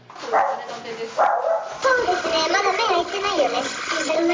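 Puppies one to two months old bark and yip in high, squeaky bursts at a weekly pet auction in the Kanto region of Japan, where breeders bring them in cages: two short yelps first, then a steady overlapping chorus of shrill barks and whiny cries that carries on without pause.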